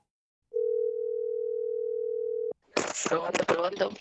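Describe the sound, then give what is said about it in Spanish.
A single steady electronic ringing tone of a WhatsApp call sounds for about two seconds, clear and even, like a call connecting, then cuts off abruptly before a person starts talking. “Llamada número 3, WhatsApp.”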